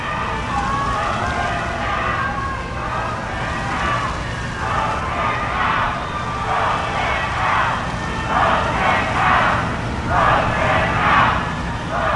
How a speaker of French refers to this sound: Et c'est arrivé aujourd'hui alors qu'on pouvait entendre les gens le huer et même lui crier Vote him out.